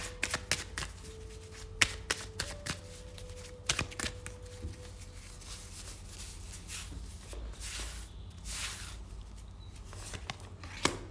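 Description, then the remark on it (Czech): Tarot cards being shuffled and drawn for a 2025 reading, the Lovers card drawn first and then the Three of Pentacles: a run of crisp, papery riffles and sharp flicks, with irregular taps and soft sliding swishes over a low steady hum, no talking. “2025, takže já tahám kartu zamilovaní hned z první ruky, z první karty.”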